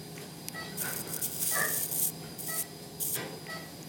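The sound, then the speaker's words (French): Intermittent sizzling, buzzing bursts from an electrosurgical scalpel cauterizing tissue during a lateral elbow surgical approach, several short crackling pulses over a steady electrical hum, moderately loud, with no talking. “La voie d'abord se fait avec un bistouri électrique qui permet de cautériser la plaie”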